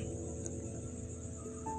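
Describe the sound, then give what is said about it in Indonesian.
A faint, steady trill of crickets chirping outside at night, around half past nine, continuous, over a low background hum with no one speaking. “aku buat podcast ini di malam hari malam hari yang hanya ditemani oleh jangkrik-jangkrik di luar sana”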